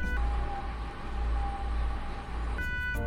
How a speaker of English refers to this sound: That is a flying spider moving at maximum speed.